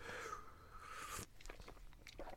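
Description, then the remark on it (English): An airy slurp of hot herbal licorice tea lasting about a second, with a faint whistling edge, followed by soft swallowing and small wet mouth clicks. “let's do some quiz questions while i have a slurp of my”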